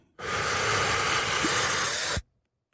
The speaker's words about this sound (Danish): Men jeg skal lige øh, bede dig om at tage en dyb indånding.